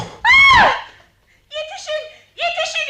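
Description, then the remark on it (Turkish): A loud, high-pitched scream of fright bursts out, followed by two shorter, strained vocal cries that trail off in quick succession. “Allah aşkına susun. Ah, Bağırmayın öyle.”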